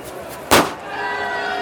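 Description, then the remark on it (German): A leather football bursts with one sharp, loud pop, very brief, after being impaled on Igor's spike during a football match; it rises suddenly out of a steady background murmur that carries on afterward. “Das runde Leder ist auf dem Stachel von Igor aufgespießt und ist zerplatzt.”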